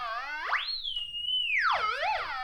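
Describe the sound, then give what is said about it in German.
An electronic whistle tone from a color sensor, held up in a room with its second button pressed, glides upward, holds a high steady pitch, then sweeps down and wobbles. Its pitch changes continuously as the light level shifts while the sensor moves from a dark area toward a window. It is clear, with no talking. “Wenn ich den Farbsensor nicht auf einen Gegenstand aufsetze, sondern in den Raum halte und die zweite Taste gedrückt halte, dann höre ich einen Pfeifton”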